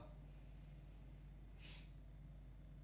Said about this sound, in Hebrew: Okay, עכשיו, כשאני אני מסתכל ב, על איזושהי נקודה מסוימת, בוא נגיד, אני לוקח את הנשימה האיטית, נשימה כפולה, עושה את הדאבל נשימה, עוד פעם,